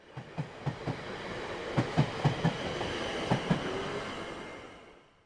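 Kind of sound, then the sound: vehicle, train departing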